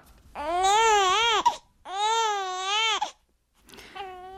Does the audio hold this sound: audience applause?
no